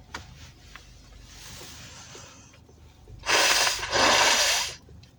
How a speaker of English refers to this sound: gotta blow my nose man i'm sick